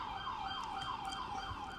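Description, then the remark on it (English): An emergency vehicle siren wails steadily in the background, its pitch rising and falling in quick repeated sweeps, sounding somewhat muffled with no talking over it. “the sirens in the background of this are actually really appropriate”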